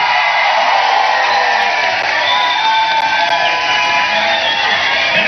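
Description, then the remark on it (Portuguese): A large crowd cheers and applauds loudly and continuously for minister Esther Deck, with whoops and shouts rising over a dense wash of clapping that holds steady throughout. “Essa, essa vocês têm essa ministra vocês têm que aplaudiu muito porque é ela que está trabalhando o plano de carreira do funcionário da FUNAI.”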